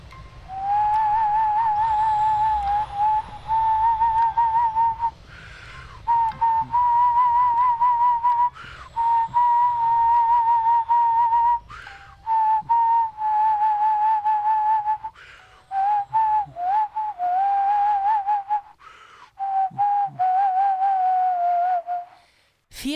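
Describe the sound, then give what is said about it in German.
A person whistles a steady, mid-pitched melody for over twenty seconds, holding long notes in short phrases separated by brief breaths, with a faint low hum underneath and no talking. “The only thing I could bring myself to do was whistle.”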